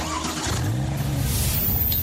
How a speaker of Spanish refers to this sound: Probar la velocidad de los autos más modernos.